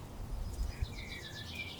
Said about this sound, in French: Et comme nous, si vous tendez l'oreille, peut-être que vous pourrez entendre des oiseaux.